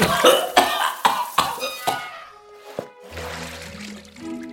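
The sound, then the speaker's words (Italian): Water from a hotel shower splashes in a series of loud, uneven gushes for a couple of seconds, then settles into a softer, steady spray with a low humming tone underneath. No one speaks. “A questo punto mi infilo direttamente sotto la doccia.”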